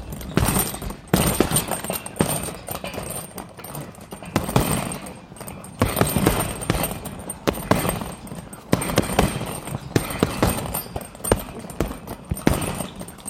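Busy boxing gym ambience: rapid, irregular thuds and slaps of blows landing, steady throughout, over a constant room noise with faint scattered voices in the background.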